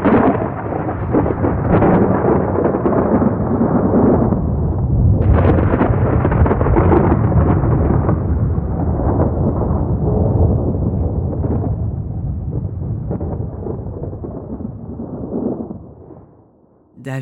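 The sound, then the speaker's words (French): A loud, sustained crash of thunder from lightning rolls heavily for about sixteen seconds, deep and booming, with a renewed surge partway through before the rumble fades away. “Le diable lance sa bomba au sol et disparaît au milieu des éclairs.”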